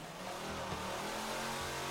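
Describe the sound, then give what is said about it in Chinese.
A car engine revs steadily with a loud, continuous droning roar, its low pitch rising and falling slightly over two seconds, with no one talking, as Adam raises the engine speed in a test of mothballs added to the gasoline. “结果引擎的声音听起来变得更棒了，大家感受一下吧。”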